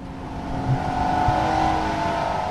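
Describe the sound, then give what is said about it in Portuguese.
A car engine hums and revs steadily, a continuous loud motor drone with a slightly rising pitch and no voices; the car is used by politician Paulo Rangel, after a helicopter. “Depois do helicóptero, o carro.”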